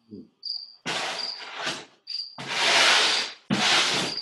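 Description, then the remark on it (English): A cricket chirps in short, high-pitched trills, alternating with louder harsh, raspy bursts of scratchy buzzing; fairly loud, with no talking. “Was it like the reverse of the cricket sound?”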